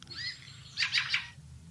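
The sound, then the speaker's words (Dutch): A fieldfare's flight call, made as the birds fly over a house: three harsh, chattering chack notes in quick succession, with a fainter thin whistle just before, over a low background rumble. “Ja, dat is het geluid zeg maar, wat ze maken als ze over het huis vliegen.”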